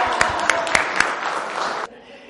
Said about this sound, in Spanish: Hola, ¿cómo están? Un aplauso.